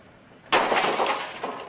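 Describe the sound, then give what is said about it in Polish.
A single sudden crashing impact as a hammer smashes into a home printer that had failed to work five times in a row bursts out loud and bright, then rattles and clatters for about a second with a second smaller crack near the end. “Zniszczenie drukarki ciosem młotkowym”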